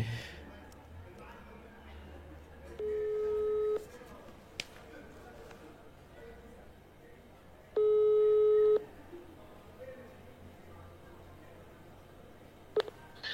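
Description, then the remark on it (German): A telephone busy signal sounds after the call drops: two steady, mid-pitched electronic tones about a second long, separated by a pause, over faint background noise and a few clicks. “Oh, jetzt haben wir einen Moment. Müssen wir nochmal zurückrufen.”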